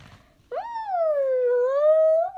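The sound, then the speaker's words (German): A dog named Keks gives one long, whinny-like howl, as if imitating horses, lasting about two seconds, its steady pitch dipping slightly and then rising again at the end, loud and alone with no talking. “Ich glaube, er versucht gerade die Pferde nachzumachen.”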